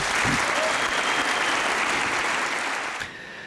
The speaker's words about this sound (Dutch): Ja, tijdens het Oekraïne-gedeelte van zijn toespraak werd er door zowel Democraten als Republikeinen hard geklapt voor de woorden van de president. Zoveel eensgezindheid hadden we lang niet gezien in Washington.